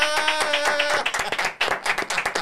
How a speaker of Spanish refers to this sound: yo quiero que allá en sus casas y acá nosotros vamos a recibir con un fuerte aplauso,